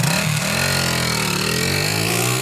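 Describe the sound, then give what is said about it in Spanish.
A motorcycle engine revs up loud, its droning pitch climbing steadily as it pulls away, with no voices over it. “Vamos, pero en la moto, en la nave.”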